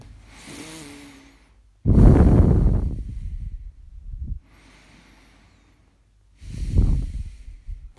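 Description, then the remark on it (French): Audible breathing in and out through the nose: a few slow cycles of soft inhales followed by louder, rushing exhales, with short pauses between, alone with no talking. “Et donc pour ça, faire une respiration par le nez, donc inspirer et expirer par le nez.”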